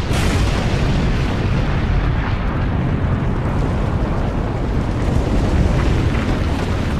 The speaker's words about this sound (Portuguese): Tu tá cavalgando numa planície, aí atrás você ouve uma explosão colossal.